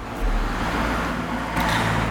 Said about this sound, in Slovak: Ja ešte jedno auto prejde, prisám, vyhodím klince na cestu a, a ich to zastavím.